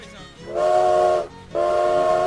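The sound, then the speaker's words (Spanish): The Río Blanco factory steam whistle blows early in the morning in the valley, two long, loud blasts in quick succession, the second starting right after a brief pause, with a steady, piercing, chord-like tone. “El lunes 7 de enero, muy temprano en el valle, sonó el silbato de Río Blanco,”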